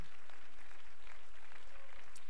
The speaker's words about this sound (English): Praise the Lord. Clap your hands and let's give praise to the Lord.